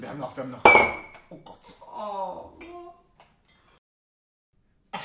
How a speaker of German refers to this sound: Man hat man hat's sehr schön gehört, dieses Klingen, was ihr gehört habt, das war mein Glas.